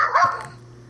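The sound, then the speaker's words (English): A single short, sharp bark from a pet dog, rising quickly then fading, with a low steady hum underneath. “Oh, sorry that's my dog.”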